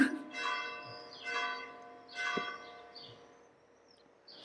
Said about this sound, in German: Jetzt läuten gerade die Glocken. Ich glaube, ich bin mal kurz ruhig.